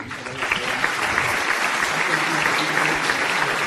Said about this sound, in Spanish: También yo quería eh, pedirles un aplauso para otro de nuestros invitados